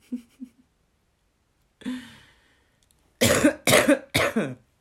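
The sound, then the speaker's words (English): A person coughs: a couple of soft, brief throat sounds, then a single cough, followed by three loud, harsh coughs in quick succession. “oh, cough's getting better.”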